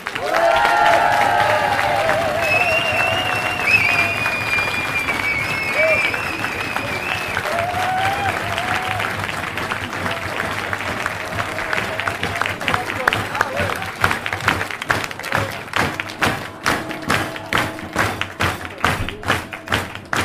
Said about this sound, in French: C'est que la cuisine, ils font un travail de fou. Et dans la créée, il n'y a pas encore une mot pour eux, alors je pense qu'on peut les applaudir super fort.